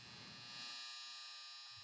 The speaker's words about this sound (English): Speaking of life being happy, that's my clothes coming out the dryer. And nothing, and I mean nothing, is better when you put on warm underwear and socks.